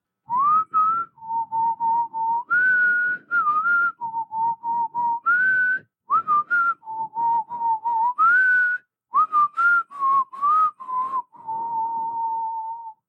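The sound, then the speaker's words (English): A lumberjack carrying an axe and a shovel whistles a lively, bouncy melody for about thirteen seconds as he walks, with clear pure notes hopping up and down in short phrases and brief pauses, fairly loud with no talking. “He has an axe and a shovel over his shoulder, and he's whistling as he walks over.”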